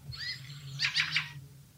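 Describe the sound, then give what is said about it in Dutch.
A fieldfare's flight call as it flies over a house: a thin, rising whistled note followed by a quick run of three harsh, scratchy chack notes, fairly loud over a low steady hum, with no voices. “Ja, dat is het geluid zeg maar, wat ze maken als ze over het huis vliegen.”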